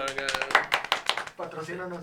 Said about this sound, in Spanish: Mira, un aplauso para …, por favor.